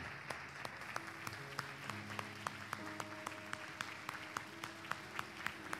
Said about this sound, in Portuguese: Vamos aplaudir o nome do Senhor Jesus, que é o nosso Pai.